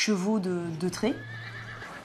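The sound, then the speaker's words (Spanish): A Percheron horse gives a single loud whinny with a wavering, quivering pitch that trails off into a lower drawn-out tone lasting about two seconds. “La raza percherona nació en nojon le retrou y sus orígenes son las primeras cruzadas.”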